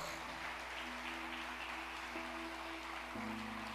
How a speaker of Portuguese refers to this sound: Pode aplaudir o nome do Senhor.